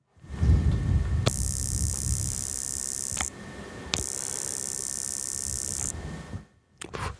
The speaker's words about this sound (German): wenn ich das direkt diesen Stift ans ähm, Mikro halte, dieses so ein leichtes Knistern